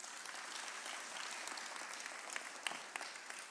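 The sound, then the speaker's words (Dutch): An audience applauds its pastors steadily, a dense wash of many hands clapping that holds at an even level throughout, with a few sharper individual claps standing out near the end. “Mag ik even een applaus voor jullie voorgangers?”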